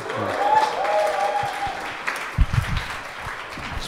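An audience at an election campaign event claps steadily for a few seconds, a dense wash of many hands, with some cheering voices mixed in before the applause thins out.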